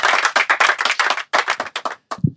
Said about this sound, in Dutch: I said, hey, applaus. Dankjewel.